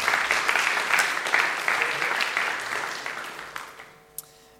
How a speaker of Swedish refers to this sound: vi ger honom en till applåd tycker jag.